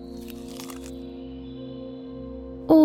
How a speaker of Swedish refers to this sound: Han böjer sig fram och tar en liten tugga av den.